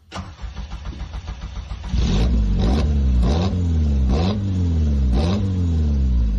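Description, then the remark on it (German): A Caterham 7 sports car engine idles with a low rumble, then is revved hard in a series of about five sharp throttle blips, each rising and falling in pitch, loud, with no talking. “wir hören, glaube ich, mal kurz den Sound.”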